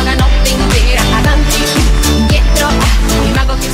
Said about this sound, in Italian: Eccola la canzoncina. Siamo qui a tutti quanti a Ferla con la canzoncina.